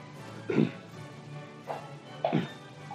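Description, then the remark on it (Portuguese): A person clears their throat in three short, gruff bursts, the first and last heavier, the middle one lighter, against a quiet background. “Pigarro na, na gravação.”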